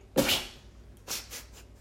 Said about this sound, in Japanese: 鼻炎なあれなのでちょっとすいませんくしゃみした